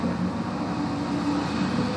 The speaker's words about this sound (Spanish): ya comienzan a pasar más carros por aquí.